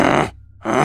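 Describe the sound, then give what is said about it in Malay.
A person's voice imitates a wild beast's snorting, two loud, harsh, breathy bursts with a brief pause between them. “terus si Laura ni dengar bunyi macam mendengus”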